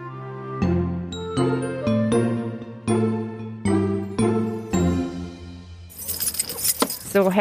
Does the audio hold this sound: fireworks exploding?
no